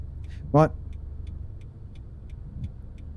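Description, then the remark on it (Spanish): A single short, sharp car horn blast rises over a low, steady traffic rumble in dense fog on the road to Nancagua, followed by faint regular ticking in the background. “No, que está densa, pero si hay auto, si no escucháis todos los bocinazos que hay.”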